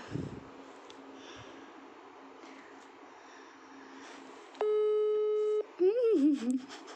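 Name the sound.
phone call ringback tone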